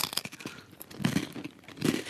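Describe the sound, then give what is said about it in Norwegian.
A dry, crispbread-like cracking and crunching from a refrigerator, a string of irregular brittle crackles with two louder crunchy bursts toward the middle and end, heard alone without any talking. “Nei, hvis det kommer en knekkebrødlyd eh, fra kjøleskapet mitt”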